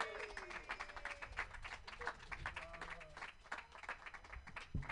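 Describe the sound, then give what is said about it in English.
An audience at a comedy show claps steadily for a comedian finishing his set, a dense patter of many hands that stays fairly loud throughout, with a few scattered voices and a sharper knock near the end. “Get those applause.”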